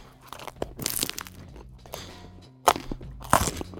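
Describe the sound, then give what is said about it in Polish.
Crisp crunching from bites into a flaky croissant, with a burst of crackles early on and two sharper, louder crunches near the end, no talking. “i pochrupać nim. Zróbmy ASMR.”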